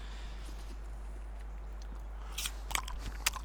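Close, crisp crunching of someone biting and chewing an apple, a few sharp bursts clustered near the end after a quiet stretch with a low steady hum, no talking.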